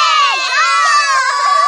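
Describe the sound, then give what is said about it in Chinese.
A group of schoolchildren cheer happily together after receiving a reward of rainbow candy, in a loud, sustained burst of high-pitched overlapping voices, shouting with excitement for a couple of seconds without any clear words. “同学们太开心了，一起欢呼了起来。”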